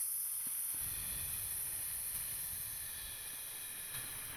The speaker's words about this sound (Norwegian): Og så puster vi inn gjennom nesen med lukket munn. Samtidig som du tenker at du blåser opp magen som en ballong, og så puster vi ut på en svak S.